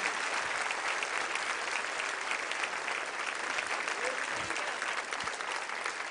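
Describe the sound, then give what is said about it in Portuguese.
An audience applauds steadily for people coming forward to the front to pray, a dense, even wash of clapping that holds at a constant level for about six seconds with no clear pauses. “Vamos aplaudir essas pessoas que estão vindo aqui.”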